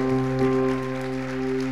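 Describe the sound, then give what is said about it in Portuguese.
An audience claps for the Lord steadily and continuously, a dense wash of applause blended with sustained keyboard or organ chords holding underneath. “Aplauda o Senhor.”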